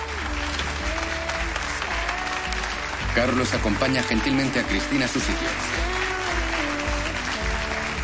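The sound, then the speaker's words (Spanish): Steady applause from a surprised audience in a hall after a telephone call demonstration fills the whole clip, a dense crackling clatter that swells a little partway through, while a man speaks over it. “Todos aplauden sorprendidos.”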